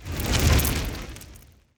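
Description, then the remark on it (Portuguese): A single roaring fireball explosion, a broad whooshing burst with heavy low rumble that swells and then fades out over about a second and a half. No voices. “Mas eu vou sumonear uma bola de fogo aqui”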